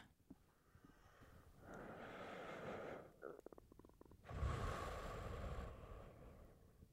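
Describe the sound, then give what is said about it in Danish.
Four slow, deep breaths drawn and released, long airy rushes of noise with a brief pause between them, and no one speaking. “Og så tage fire gode, dybe vejrtrækninger.”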